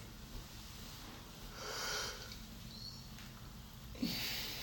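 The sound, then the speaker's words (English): A soft, drawn-out yawn with a breathy exhale, followed by another brief breathy gasp near the end, fairly quiet over faint background hiss. No one speaks. “What you yawning for?”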